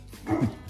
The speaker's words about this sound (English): That's my dog.